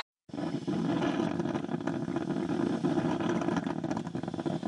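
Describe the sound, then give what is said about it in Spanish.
A coffee maker brewing in the morning with a steady, loud rumbling hiss that kicks in after a brief silence and keeps churning evenly for several seconds, with no voices. “Este ruidito de cafetera la mañana es lo mejor del mundo.”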